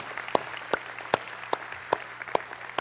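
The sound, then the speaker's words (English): An audience applauds after a worship song: steady rhythmic clapping, seven sharp claps spaced evenly about every 0.4 seconds, moderately loud over a faint low hum, with no voices. “After that last song, what I wanted to do was applaud. Can we just do that and worship?”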